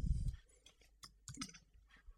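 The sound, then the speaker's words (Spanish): A few soft clicks of a computer mouse clicking on a small icon that opens a history come in a small irregular cluster after a low muffled thump, against a quiet background with no talking. “que al darle clic nos abre un historial de, lo que hemos ya utilizado, de las imágenes o, carpetas o demás que hayamos utilizado”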